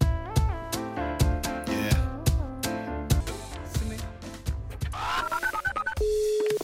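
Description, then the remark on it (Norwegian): Rhythmic music with a steady beat fades into a quick run of telephone dialing beeps, then a single steady tone as an outgoing call connects, clear. “Der ringte dere, vet du. Vi prøvde akkurat å ringe deg.”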